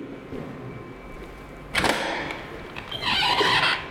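A door into office rooms opens with a sharp clack and a sustained scraping swish, followed a second later by a hissing rush of air or movement, against a faint hum.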